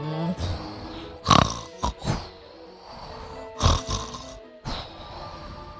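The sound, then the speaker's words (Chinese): Loud, rasping snores, apparently imitated by a voice as a father's thunder-loud snoring, come in several rough bursts at an uneven rhythm, with a low, throaty rumble between them and short pauses. “可是马可的爸爸开始打呼了，鼾声响得跟打雷一样。”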